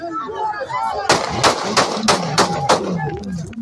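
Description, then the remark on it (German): A rapid string of six sharp gunshots rings out at fairly even intervals, loud, over a murmur of background voices and street noise, fired in a street in Ecuador as a presidential candidate makes his way to his car after a campaign speech on a Wednesday evening in early August. “nach seinem Auftritt an jenem Mittwochabend Anfang August auf die Straße tritt und sich den Weg zu seinem Auto bahnt, fallen Schüsse.”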